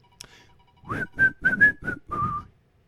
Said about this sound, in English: Now's the time of the show when we whistle our cares away.